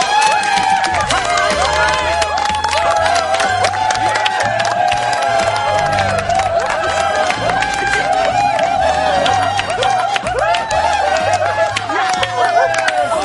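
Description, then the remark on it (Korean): An audience claps loudly and steadily for about thirteen seconds as two guests, musical actors, are welcomed onto a show, with excited cheering and whooping voices rising over the dense, continuous patter of hands. “아니 박수 좀 크게 쳐요.”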